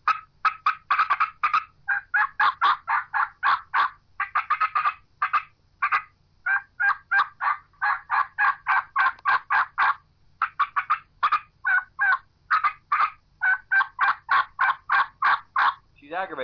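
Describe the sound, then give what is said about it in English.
An aggravated wild turkey hen, challenged by another hen or challenging one, cuts and yelps excitedly: sharp, rapid clucks and raspy yelps in quick, uneven bursts, loud, running almost continuously with brief pauses and no talking. “From there, we're going to go into she's pissed off, she's aggravated. There's another hen that's challenged her, or she's challenging another hen. She's going to cut and excited yelp.”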